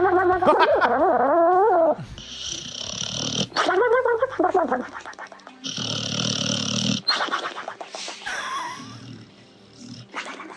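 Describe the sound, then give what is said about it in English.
A dog snoring, with loud, rough, rattling breaths repeating every few seconds, broken up by wavering whiny, squeaky vocal sounds. No one speaks. “Dog snoring.”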